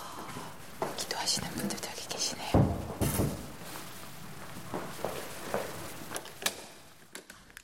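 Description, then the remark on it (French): Slow, careful footsteps tap out an irregular pace, each step ringing briefly in a quiet church while faint whispering murmurs underneath. “Le bruit des pas prudents résonne fortement dans l'église tranquille.”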